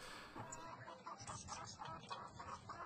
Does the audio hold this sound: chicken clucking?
yes